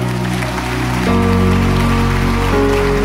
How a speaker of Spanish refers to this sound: Dele otro fuerte aplauso al Señor.